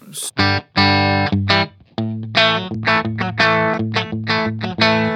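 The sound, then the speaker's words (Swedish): A distorted electric guitar run through an overdriven compressor pedal, with the compressor's ratio turned up so the compression is heard exaggerated, plays a string of loud, sustained chords and notes. Each is struck and rings briefly in an uneven rhythm, with no talking. “Eh, ja, vi drar upp ratiot eh, lite grann då. Ja, det vill säga kompressor, hur mycket den ska eh, vara med.”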